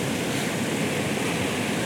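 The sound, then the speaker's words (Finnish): Rushing river rapids roar steadily, a dense, unbroken wash of churning water with no pauses and no voices, heard from the bank of the rapids. “Ja tota, nyt ollaan tultu tänne kosken varrelle takas yövuoroon niin sanotusti.”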